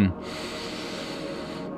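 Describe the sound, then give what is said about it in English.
A single deep, airy breath drawn into the microphone, a steady whoosh of air lasting just under two seconds with no talking. “Hopefully, breathing”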